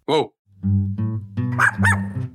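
A dog gives one sharp bark, then after a short pause makes a run of low, drawn-out growly whines broken by two higher yelps. Fairly loud, with no talking.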